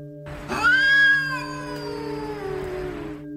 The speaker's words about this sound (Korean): 처음에는 작게 들렸던 고양이 울음소리는 마치 제 옆에 있는 것처럼 점점 크게 들렸습니다.